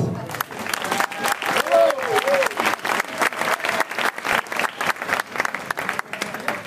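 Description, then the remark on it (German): Sustained audience applause at the 2023 Kerwa village fair in Weißenbrunn, a dense steady patter of many hands clapping for several seconds, with a few voices and a brief cheer mixed into the clapping. “Für die Kerber 2023 nochmal einen riesen Applaus.”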